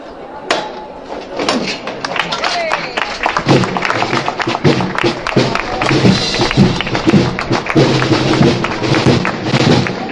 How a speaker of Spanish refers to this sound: Levantad de nuevo el cielo y el aplauso de la persona, la fila de personas que hay aquí en la calle Cerón.